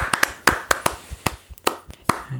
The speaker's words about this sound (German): Applaus.